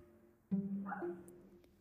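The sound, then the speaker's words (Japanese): A dog in the background gives a single drawn-out, whiny bark or yelp lasting about a second; otherwise quiet. “今日も背景で犬が吠えておりますがご了承ください。”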